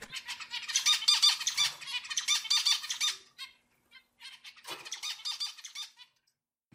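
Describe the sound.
A voice imitates a harsh, squawking bird call in two long, raspy bursts separated by a short pause. It is fairly loud, with no other talking.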